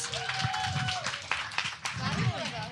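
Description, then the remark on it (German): A small audience claps steadily for a few seconds to welcome a volunteer, a dense patter of hands, with voices calling and chattering over the applause. “Herzlich willkommen, Rike! Ein Applaus!”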